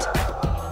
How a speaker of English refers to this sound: that's my dog